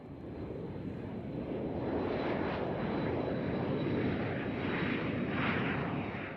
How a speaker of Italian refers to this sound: Prendiamo un aereo, anzi, prendete un aereo immaginario con me e andiamo a 17.000 km di distanza vi voglio portare in Nuova Zelanda, facciamo un bel viaggio in aereo e poi torniamo indietro in Italia.